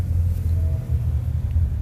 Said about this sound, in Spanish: Solo esperen un momento porque aquí la salida del parqueo, no sé por qué en este momento se hizo mucho tráfico. Pero bueno, ya casi estoy llegando a la puerta del parqueo del centro comercial.